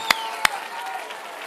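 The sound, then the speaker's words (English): A crowd applauds God: two sharp, loud claps stand out at the start, followed by a steady wash of softer clapping and murmuring that continues to the end. “Why don't you applaud God in His great power?”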